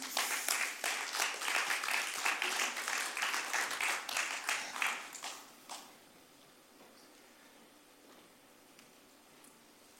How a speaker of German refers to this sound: Einen riesen Applaus für die beiden.